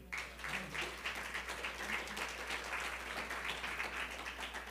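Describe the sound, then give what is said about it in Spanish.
An audience claps hands for the Lord after a prayer in a steady, dense burst of applause lasting several seconds, even and at moderate volume, with no speech over it. “Puede darle unas palmas al Señor.”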